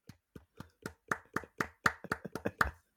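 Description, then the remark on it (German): Applause from what sounds like a single pair of hands: about a dozen sharp, crisp claps in a steady rhythm, growing slightly louder and quicker toward the end, with no talking. “Da auch mal ganz großen Applaus.”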